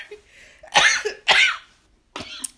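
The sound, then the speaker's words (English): Three harsh, raspy coughs from a person with a scratchy throat, the first two strong and evenly spaced, then a pause before a shorter third cough with a throaty, scratchy edge. “Excuse me, guys. I have like this scratch in my throat today”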